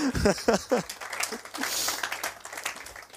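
A voice speaks and laughs briefly, then an audience breaks into steady applause for a performer from the opening skit, a dense wash of many hands clapping that carries on at moderate loudness to the end.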